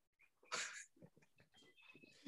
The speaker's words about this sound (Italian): Sento il pollo di, del, cane, del cane in sottofondo, mi piace eh, molto. È la pallina, gli ho, ho, tirato la pallina per farla spostare.